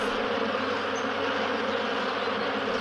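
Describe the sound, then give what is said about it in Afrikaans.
A dense, droning swarm of angry bees buzzes steadily and loudly around a sleeping lion's head, a continuous hum that never lets up, with no voices present. “Uit sy wegkruip plek daar naby, lek haar sy vingers af terwyl hy kyk hoe die woedende bye om die slapende leeu se kop zoom en vlieg.”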